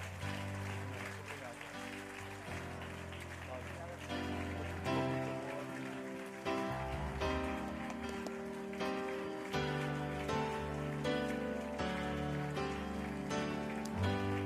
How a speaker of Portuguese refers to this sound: Vamos ficar de pé agora e vamos agora sim dar uma salva de palmas para eles.